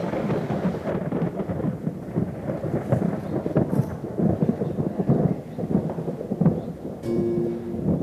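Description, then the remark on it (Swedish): A thunderstorm with lightning strikes, deep, continuous rolling thunder rumbling throughout, steady rain hissing underneath, and a brief tonal hum near the end. No voices. “fullt, fullt stormväder och blixtar som slog ner och liksom åska”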